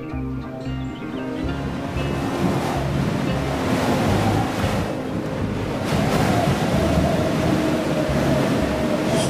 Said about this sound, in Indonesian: Waduh, ini semakin kencang saja anginnya. Oh, pantas saja. Ternyata kita sedang berada di tempat latihan hembus.